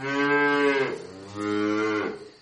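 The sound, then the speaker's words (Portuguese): An ox, Blimundo, lets out two loud, drawn-out moos, each about a second long with a rich, harmonic bellow, separated by a brief pause, with no voices. “Desceram e subiram rochas, tremeram aos mugidos do Blimundo.”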